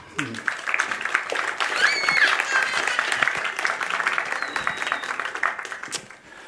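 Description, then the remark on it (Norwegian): An audience applauds a church worship team steadily for several seconds, a dense wash of clapping with a few brief cheers or whistles rising above it, moderately loud. “Klapp gjerne for det.”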